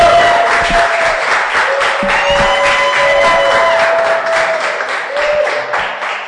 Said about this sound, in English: So let's welcome with a round of applause the senior man of God